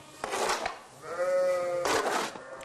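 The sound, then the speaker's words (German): A sheep bleats clearly in a long, wavering call, set against a rustling, shuffling background that suggests a flock moving, as the sheep are given green fodder; no one speaks. “Ist der Boden bereitet, bekommen die Schafe noch Grünfutter.”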